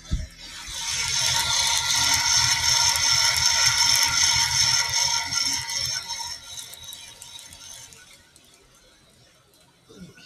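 Coffee beans crackle in a steady, rapid patter of tiny pops during the second crack of a dark roast in a Meister 2.5 roaster of 2.5-kilogram capacity, over a continuous roaster hum that swells early and gradually fades toward the end.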